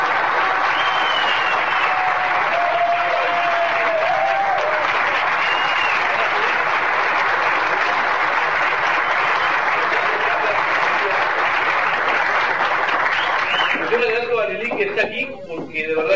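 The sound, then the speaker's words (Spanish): Loud, sustained audience applause welcoming a guest from Tehuacán, Puebla, a dense steady roar of clapping with faint cheers and whistles riding on top, thinning out near the end as voices begin to come through. “Y por favor ayúdenmelo a recibir con un aplauso bien fuerte desde Tehuacán, Puebla,”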